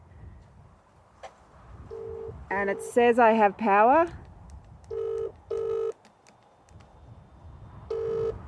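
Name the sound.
phone call ringing tone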